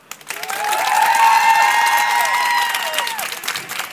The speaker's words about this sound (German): dreht kurz mal runter, weil wir wollen jetzt mal kurz testen, wie das klingt, wenn alle hier klatschen und schreien, ich so hoffe, laut sie können. Ich zähle jetzt runter und dann wird es laut im Auto. 3, 2, 1.